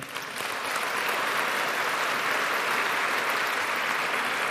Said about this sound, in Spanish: Oh, dale un aplauso al Señor.